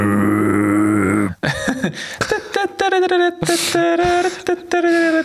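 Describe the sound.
A voice imitates a deep fairground ride horn with one long, steady, low blare lasting over a second, followed by choppy vocal noises and talk.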